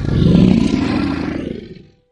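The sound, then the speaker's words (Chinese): A single deep lion roar, loud and rumbling with a gravelly growl, swelling quickly and then trailing off over about two seconds. No one speaks. “他开始大吼”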